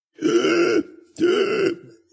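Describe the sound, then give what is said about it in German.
Two loud, drawn-out pained moans and whimpers from someone who feels pinned to the floor with both shoulders hurting badly, each lasting under a second with a short pause between, low and strained with a rough, groaning quality and no words. “das Stöhnen und äh, Winseln und Jammern von Naomi die äh, gefühlt wie am Boden festgenagelt ist, denn ja, ihre kompletten Schultern schmerzen höllisch.”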